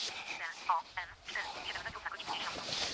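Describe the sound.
A GPS device speaks a short synthesized announcement through a small, tinny speaker, its thin, band-limited voice running steadily for a few seconds, once a GPS signal has been acquired.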